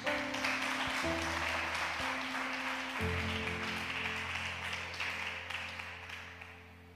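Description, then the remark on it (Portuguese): A church audience applauds the name of Jesus after the Gospel reading on the feast of the Conversion of Saint Paul: a dense wash of many hands clapping that holds strong for several seconds before slowly thinning, with sustained low organ-like chords shifting underneath. “Você pode dar um beijo na sua Bíblia e aplaudir bem forte o nome de Jesus.”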